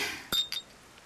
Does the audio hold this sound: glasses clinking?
yes